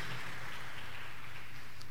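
An audience applauding the Lord in the evening, a dense, steady wash of many hands clapping together that holds evenly for the full two seconds, with no voices rising above it.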